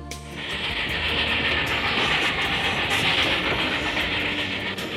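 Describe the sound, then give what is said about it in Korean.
A train rumbles steadily along the rails on a trip back to Busan after the Chuseok holiday, a continuous roar with a hissing, rushing high end and faint rhythmic clatter underneath, lasting the whole clip with no voices. “시골에서 내려와 부산에서 회사를 다니고 있던 저는 어느 추석 명절 고향에 내려갔다 올라오는 기차 안에서 그를 처음 만났습니다.”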